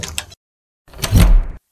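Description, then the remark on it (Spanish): A bedroom door is opened in darkness during a power blackout: a short creak and rattle, a brief pause, then a longer scraping, rumbling swing of the door, with no voices. “Carlos abre la puerta de su habitación”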